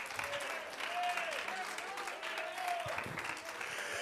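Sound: audience applauding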